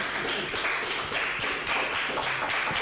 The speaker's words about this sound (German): Das Publikum kann jetzt nochmal tosenden Applaus spenden.